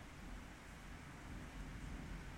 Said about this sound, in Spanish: Sí, truenos y lluvia cayendo con todo en casa. Chale. Bueno. Eh, afortunados que tenemos un techo y no pasa nada. Eh, ¿Qué iba a decir? Ah, sí, están compartiendo que en toda la ciudad está igual. Ya se movió para todos lados.